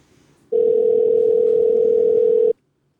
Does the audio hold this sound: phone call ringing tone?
yes